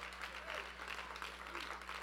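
A church audience claps steadily to thank God during a service, a dense, even patter of many hands sustained without a break for about two seconds, with a low steady hum underneath.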